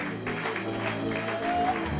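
A worship crowd cheers and claps steadily for the Lord for a couple of seconds, a dense wash of applause and voices with a sustained tone running underneath.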